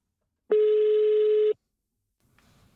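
A single loud, steady telephone ringback tone sounds for about a second, followed by a pause and faint line noise as a journalist's phone call is picked up.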